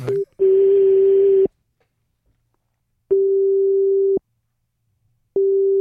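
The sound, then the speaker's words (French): A double-ring telephone ringing tone of an outgoing call sounds alone: a steady, low, buzzy tone in long pulses of about a second, separated by longer silences, heard three times. “double sonnette double sonnette, ça veut dire qu'on va basculer.”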